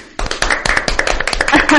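Live applause from a group, a dense, loud patter of many hands clapping steadily for about two seconds, with a few faint voices mixed in.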